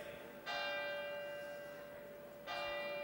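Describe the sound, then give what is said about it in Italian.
A church bell striking the hour at 5 p.m. tolls twice in slow succession, each strike ringing out with a bright metallic attack and a long, shimmering hum that lingers between strokes, heard alone. “lasciamo scandire il tempo, che sono 17 ne fa”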